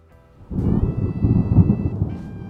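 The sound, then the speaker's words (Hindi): Heavy rain pours down steadily, joined about halfway by a deep rolling rumble of thunder that swells and lingers through the rest. No one speaks. “I clearly remember उस दिन ज़ोरों से बारिश हो रही थी”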